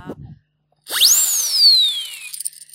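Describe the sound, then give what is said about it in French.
A cartoon-style sound effect made by a foley artist: a whistling tone shoots sharply upward, then slides slowly back down in pitch over a hissy, buzzing bed. It follows a brief low murmur of voice. “Alors, effet cartoon.”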